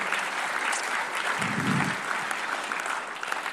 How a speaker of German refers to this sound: Yes, lass unsere Leiterschaft mal auch mal feiern und einen Applaus geben.